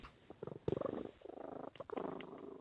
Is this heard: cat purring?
yes